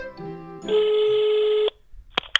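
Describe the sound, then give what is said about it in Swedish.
A single long, steady ringback tone sounds loudly through a phone line on an outgoing call to the speaker's mother, then cuts off, followed by a couple of sharp clicks as the line connects. “så vad sägs om att vi ringer upp min kära mor”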